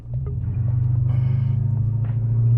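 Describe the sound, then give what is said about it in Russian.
A deep, throbbing BMW V8 car engine rumble builds steadily as the accelerator pedal is pressed, a loud low growl with a rhythmic pulse, without any talking. “И прямо сейчас, если чуть надавить на педальку”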